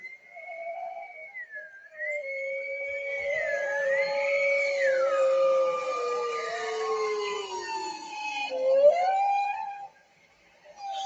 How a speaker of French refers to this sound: je vous propose d'accueillir les chant des baleines, de guérison, de purification. Laissez votre féminin accueillir ceci.